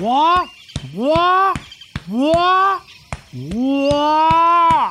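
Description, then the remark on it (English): A person imitates a gorilla's warning call with four loud, drawn-out rising hoots in steady succession, with sharp tapping knocks of hands banging on the chest sounding between and over them. “Now, while you're banging, make a sound like this one as a warning, too.”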